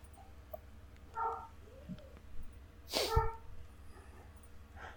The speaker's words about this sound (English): Someone's got a puppy dog. I wish I had a puppy dog.